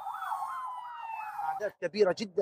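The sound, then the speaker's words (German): An ambulance carrying injured people from the Gaza Strip to Egypt sounds its siren, wailing in a rapid rising-and-falling pattern for over a second, fairly loud, before a person begins speaking and the siren fades beneath the voice. “Krankenwagen können Verletzte aus dem Gazastreifen nach Ägypten fahren.”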